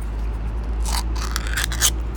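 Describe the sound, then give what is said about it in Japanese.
A metal can of grilled chicken tail snack being pulled open, with a few short, bright scraping and tearing bursts over a steady low hum, like a pull-tab lid being peeled back. “あやばいちょっと缶開ける音がすごく響くな恥ずかしいです”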